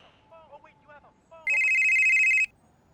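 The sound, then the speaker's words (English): A single loud electronic ring from a flip phone, a steady bright tone lasting about a second, cuts in sharply after a few faint, chirpy vocal sounds and then stops abruptly. “Oh wait, you have a phone.”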